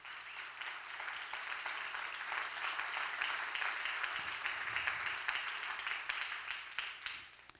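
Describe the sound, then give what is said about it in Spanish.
An audience breaks into sustained applause for God, a dense wash of many hands clapping steadily for several seconds, holding a fairly even level before tapering slightly at the end. “¿Cuánto le da un aplauso a Dios?”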